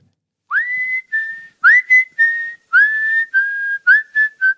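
Someone whistles a short tune of sliding notes, rising into steady tones around the same pitch, in several quick phrases with brief pauses between them, clear and fairly loud with no talking.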